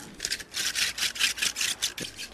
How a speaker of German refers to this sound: Das ganz frische Spargel von heute, so muss der klingen.